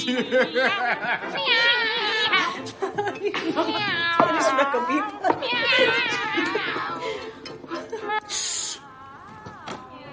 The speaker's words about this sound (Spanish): Oyen el disco de los maullidos con la familia.